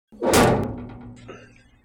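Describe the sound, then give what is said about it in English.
A heavy life pod door swings shut with a loud thud, followed by a brief metallic clack as the latch catches, leaving a low ringing resonance that fades out. “I close the door and latch it.”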